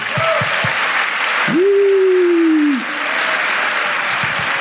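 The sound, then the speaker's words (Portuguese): Dense, steady church audience applause for the team running the lights, sound and verse slides fills the whole clip as a broad wash of clapping, with a sustained held tone rising briefly over it in the middle and a few low thumps. “Aliás, eu queria que vocês dessem uma salva de palmas aí para aqueles amados irmãos.”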